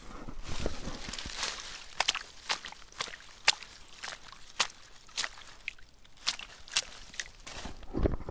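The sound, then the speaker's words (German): Shoes splash and slosh through shallow lake water in a steady walking rhythm, a dozen or so wet steps with brief watery trickles between them, no voices. “Ja, das waren meine Schuhe im See.”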